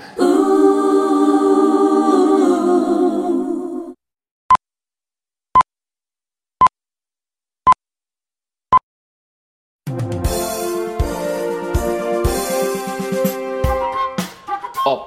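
Five short, evenly spaced pips ring out one second apart in near silence, like a radio time signal, between a stretch of harmonic music before and a burst of busy music after.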